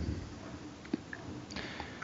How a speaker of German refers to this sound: Du schmatzt, du schmatzt übrigens.